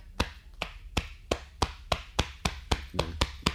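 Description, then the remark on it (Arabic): A man beats his chest steadily with his hands, imitating a horse's gallop as a sound effect for a rider arriving in an acted Arabic story: about ten sharp, dull slaps in an even, driving rhythm, with no voices. “على صدره يضرب بيديه معناها شبه كما يمشي الحصان الخبب نتاع الحصان”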